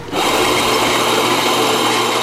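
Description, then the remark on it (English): A coffee grinder starts abruptly and runs steadily, a loud, gritty motor whir with a low hum beneath a rough, crunching hiss of beans being ground. No voices are heard. “But nothing is better at shaking off the chill than a steaming cup of freshly ground coffee.”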